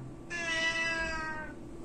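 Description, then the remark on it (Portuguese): A single drawn-out meow from a pet cat, fairly loud, lasting just over a second with a bright, slightly falling tone, over a faint low background hum with no talking. “ó, meu gato tá falando, não.”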